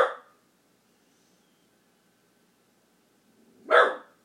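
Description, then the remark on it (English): A pet dog barks twice, one sharp bark at the start and another after a few seconds of near silence, both fairly loud. “I guess listening in on the conversations I have with my dog.”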